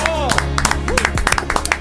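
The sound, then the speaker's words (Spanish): Scattered, irregular clapping from a small group celebrating three years of the show ¡Vamos, Congo!, sharp and fairly loud, mixed with overlapping voices and cheering throughout the short burst of applause. “12 minutos de aplauso por los tres años de ¡Vamos, Congo!”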